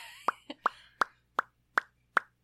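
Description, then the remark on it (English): A series of six or seven sharp lip pops made by a mouth, spaced at a fairly steady rhythm with brief gaps between each wet plop, no talking. “mouth noises.”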